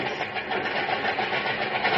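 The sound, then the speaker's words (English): An ancient car engine idles with a steady, rough rumble and hiss as the car is brought to a stop at a tiny hidden cove after driving along sandy beach and oyster shell back roads, holding an even loudness throughout without cutting out. No one speaks. “Now, a triumphant smile wrinkling his weathered face, Barnaby brings his car to a stop.”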